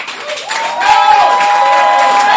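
A live audience bursts into sustained applause with some cheering, the clapping dense and loud, swelling after the first half-second and holding steady to the end.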